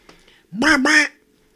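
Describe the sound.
A person imitates a duck, voicing a single loud, nasal quack: two quick harmonic-rich bursts joined together, lasting about half a second, with faint background murmur before it.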